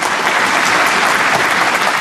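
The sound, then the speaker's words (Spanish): Steady, dense applause from a small group of family members, many hands clapping at once in a continuous crackling wash that stays loud and even throughout, with no talking. “esa es la familia aplaudiendo.”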